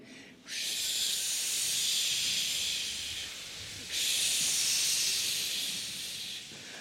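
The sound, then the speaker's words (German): An audience hisses together to imitate a cold wind, a broad sustained whoosh that swells in two long waves with a brief dip between them. “Könnt ihr mir alle mit dem Wind helfen?”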